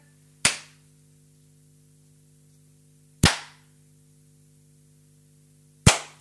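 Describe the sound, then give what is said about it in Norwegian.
Three single, sharp hand claps during a Radio Fenris broadcast, spaced a few seconds apart, each a loud crack that fades quickly, with a steady low hum underneath and no talking. “Ja, men slutt å klappe, da!”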